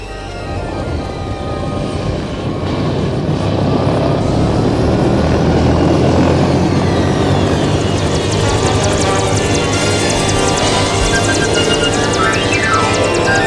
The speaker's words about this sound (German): Jetzt eilen sie wieder zum Hubschrauber.